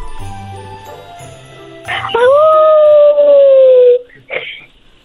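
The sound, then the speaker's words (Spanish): A child's voice imitates a wolf howl on request: one long, loud howl that swoops up and then slowly slides down for about two seconds before breaking off, followed by a short breathy sound. “Ah, ¿Puedes, ¿Puedes hacer el ruido de un lobo?”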